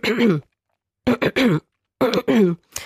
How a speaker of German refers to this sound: Und zwar, was passiert beim Räuspern, gleich wie beim Husten, es ist ja eine leichtere Form des Hustens, die Stimmlippen prallen aufeinander mit einem e-, enormen Druck.